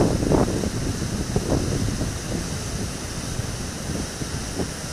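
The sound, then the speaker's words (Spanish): Steady rushing water with waves washing in, a broad continuous wash mixed with gusty wind buffeting the microphone, moderately loud, with no voices. “Desde este momento recordarás tus talentos y la alegría que hoy tenemos por recibir el primer rayito de sol, la celebración del viento y el canto del agua.”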